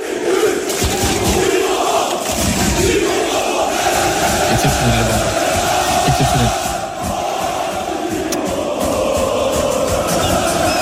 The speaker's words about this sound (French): Il y a deux semaines, Mauro Icardi, en disgrâce au PSG, effectue un retour définitif à Galatasaray. À l'aéroport d'Istanbul, n'a pas été accueilli par une centaine de supporters, mais des milliers.